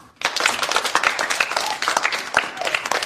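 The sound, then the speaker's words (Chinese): A group of students in class applauds a classmate who handed in found sunglasses. It is a dense, steady patter of many hands clapping at once for about three seconds, with slight swells in loudness and no talking over it. “大家为他鼓掌好吗？”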